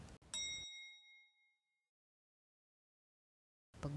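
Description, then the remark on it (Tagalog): A single bright, shrill electronic ding of an elevator arriving at a call center office rings out clearly, its tone lingering and fading over about a second before silence, with a soft burst of background noise returning at the end. “Matinis na tunog ng elevator ang pumukaw sa kanyang pansin.”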